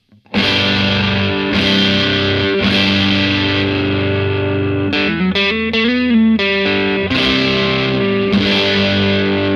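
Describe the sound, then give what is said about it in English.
Loud, heavily distorted electric guitar strums big sustained chords through a Celestion Blue speaker, with a quick choppy run of shorter chord hits in the middle before ringing chords return; no voices. “Back to the blue, we'll do some big chord work.”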